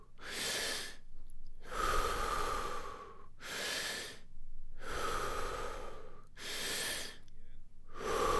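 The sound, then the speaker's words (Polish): Loud breathing during a breathing exercise, in a steady forceful rhythm, with about six strong breaths over several seconds, each a rushing burst of air separated by brief pauses, and no talking. “Jeśli w trakcie nagle poczujesz się źle, nie próbuj wykonywać wszystkich oddechów za wszelką cenę.”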